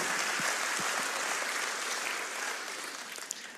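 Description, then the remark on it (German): An audience claps together in sustained, dense applause for its missionaries and aid projects, a steady wash of many hands that holds for several seconds before tapering slightly at the end. “Und vielleicht können wir all denen mal einen Applaus geben, ja, für das jahrelange Segen hier, dass es möglich ist.”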